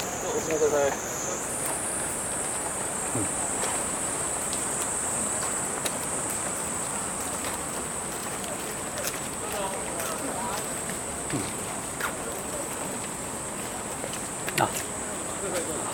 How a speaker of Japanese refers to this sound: まあ、今結構雨が強くなってきた、えー、ちょっと勢い止んでたんですけどね今ちょっと雨が強くなってきました